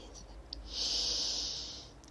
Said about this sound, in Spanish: Inhala profundo por tu nariz.